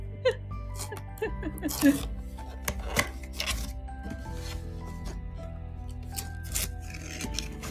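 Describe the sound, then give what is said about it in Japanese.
Crinkly rustling and scraping as a birthday gift package holding a mousse set is unboxed, with irregular bursts of paper and plastic handling, over a steady low background hum and a faint voice. “これかなちょっと待って、開けるよ。開封の儀。音声で開封の儀。”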